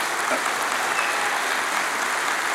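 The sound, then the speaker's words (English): An audience claps steadily, a dense, even wash of many hands applauding at a constant loudness throughout, with no voices standing out. “um, but but uh, I'm not doing that for uh, applause, by the way.”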